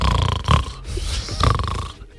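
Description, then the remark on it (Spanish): A voice imitates loud snoring, two rough, rattling snorts about a second apart with a noisy rasp carrying between them. “¿Quién está roncando?”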